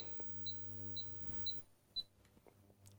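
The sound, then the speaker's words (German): Four short, high electronic beeps from an induction hob's touch controls as a medium-sized pot is set on it, evenly spaced about half a second apart, over a steady low electrical hum, with no talking. “Wie ihr hört, ist es ein Induktionsherd”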